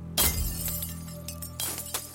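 Glass shatters with a loud, sharp crash as a woman smashes David's car shortly after midnight, followed by scattered tinkling and two more smaller smashes about a second and a half later, over a steady low hum.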